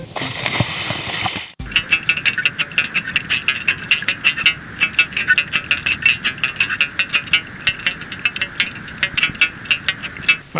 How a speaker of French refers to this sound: Le mec, il joue de la guitare sous l'eau.